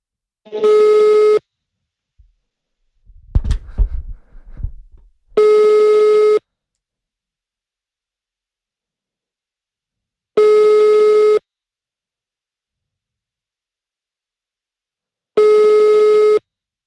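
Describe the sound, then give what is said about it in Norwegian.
A telephone call tone, a busy signal heard while calling someone to record over the telephone: four steady, fairly loud electronic beeps, each about a second long, repeating roughly every five seconds, with a brief clattering handling noise after the first beep. “Så da prøver vi å ringe han”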